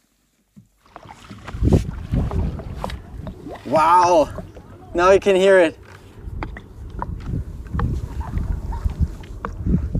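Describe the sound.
A tidal bore wave rumbles up a river in northern Brazil as a deep, continuous roar of churning water, fairly loud and steady, while a voice briefly speaks over it partway through.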